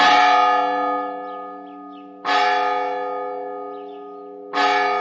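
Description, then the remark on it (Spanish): A large church bell in the tower of the church of San Miguel tolls three times at slow, even intervals, each loud strike ringing out with a long, rich hum that slowly fades before the next. No voices are heard. “se determinó que tocara 33 campanadas cada media hora desde el crepúsculo hasta las 12 de la noche y así marcase con sus rítmicos toques el camino de vuelta a la ciudad.”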